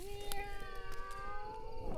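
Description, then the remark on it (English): A human voice imitates a cat within a sung song about animals, drawing out a single long, sung meow that holds a steady pitch and dips slightly at the end, clear. “and the duck went quack quack quack quack quack quack and the cat went meow”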